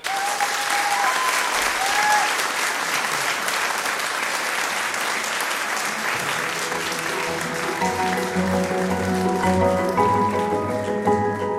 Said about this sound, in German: Ich vermute, wenn die beiden gleich reinkommen, gibt es Standing Ovations, minutenlang.